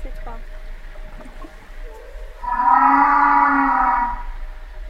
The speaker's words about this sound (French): euh, Est-ce que ça, ça serait pas le basson Ou alors c'est un mâle qui chante très fort. Euh. ça, c'est la baleine. mais par contre, c'est étonnant ouais, on dirait un barrissement euh, d'éléphant, mais c'est, ça ressemble énormément.